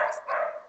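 Dogs barking, two quick, fairly loud barks in rapid succession with a rough, mid-pitched tone, the second longer and trailing off. No one speaks over them.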